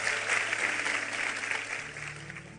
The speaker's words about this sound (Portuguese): Vamos aplaudi-lo?